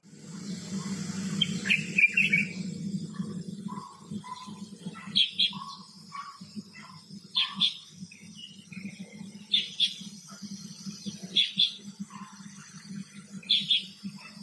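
Birdsong recorded from a balcony: bright, high chirping phrases repeat every couple of seconds over a steady low hum, with softer mid-pitched calls between them and a faint insect-like buzz in the background.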